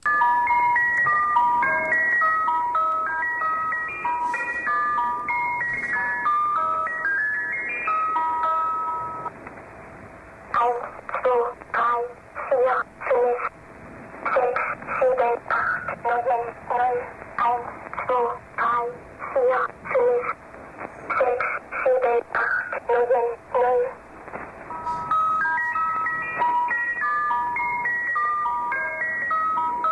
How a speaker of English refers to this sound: Another one you, you alluded to was uh, music box uh, kind of music with, right. with a child reading numbers, and that was it's called the uh, Swedish Rhapsody. It sounds a little like this.